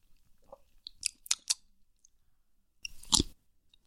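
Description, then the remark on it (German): Crisp bites and crunchy chewing: a few sharp crackling crunches early on, a pause, then one louder, fuller crunch near the end, with no talking. “Oh, Lass so mich nochmal reinbeißen, ich will, dass ich... alle den Sound hören.”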